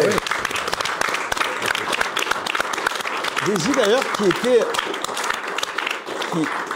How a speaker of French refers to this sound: Qui est là, en coulisses. On peut, bah, on peut l'applaudir.